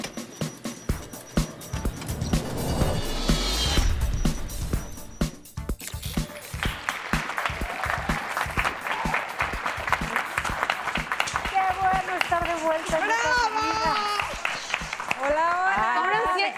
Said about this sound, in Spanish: Esos son aplausos de amor.